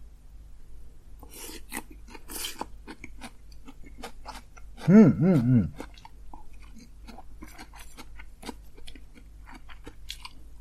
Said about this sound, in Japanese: 噛んでる音が聞こえますね。やばい。おあ、あ、うんあ、あ、な、あ、なるほどね。ちょっとキュウリの音だけうるさく聞こえますか聞こえました。キュウリの音がむしろ聞こえて、キュウリを食ってんじゃないかって疑惑が今立ってます。